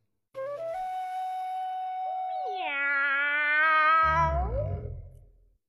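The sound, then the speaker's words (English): A voice imitates a cat with one long, drawn-out meow that bends upward in pitch and ends in a rough, gravelly tail, fairly loud with nothing else around it, while reading aloud the story Bark, George by Jules Feiffer. “Cats go meow and dogs go arf.”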